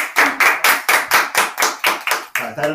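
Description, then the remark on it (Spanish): Applause on a radio program, for the radio stations Radio Vilar de Voz and Radio Camacuá, in a quick, steady rhythm: about a dozen sharp claps over a few seconds, loud and evenly spaced, with a brief hint of a voice at the very end. “Un aplauso.”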